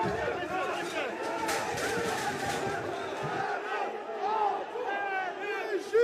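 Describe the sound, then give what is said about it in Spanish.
A rioting protest crowd, at a demonstration that began peacefully and turned into riots within hours, roars in a dense, continuous wall of shouting voices, with sharper yells and rising cries breaking out above the din throughout. “A pesar de que la manifestación empezó como algo pacífico, en cuestión de horas iniciaron los disturbios.”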